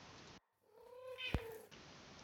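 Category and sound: animal, cat meowing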